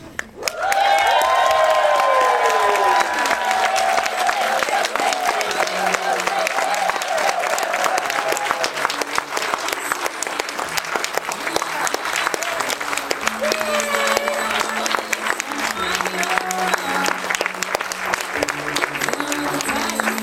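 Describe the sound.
Loud, sustained applause and cheering from a standing audience at a book launch, with whoops, steady dense clapping lasting throughout, and some voices shouting over it.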